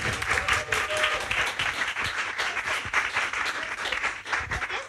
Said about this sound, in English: And while we're at it, give a round of applause to Laurie Penny.